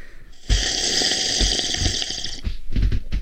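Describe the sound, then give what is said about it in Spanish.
Someone slurps a drink: a long, loud, airy sucking slurp lasting about two seconds, followed by a few shorter, choppy slurps. No one talks. “Aquí están los sorbedores.”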